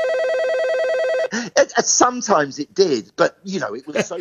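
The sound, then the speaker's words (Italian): A telephone rings in a recording studio at Windmill Lane for just over a second, a loud, trilling electronic ring that cuts off abruptly as a person starts talking. “Se mentre registri si sente il telefono che squilla, va bene così.”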